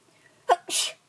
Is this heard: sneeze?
yes